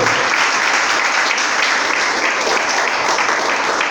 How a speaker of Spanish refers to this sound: ¿Cuántos pueden dar un aplauso Señor esta tarde? fuerte a Él, por favor.